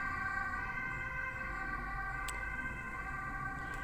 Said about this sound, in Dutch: ik wacht heel even want er komt eh, een ambulance langs met heel harde sirenes. En dan kun jij mij waarschijnlijk niet meer verstaan.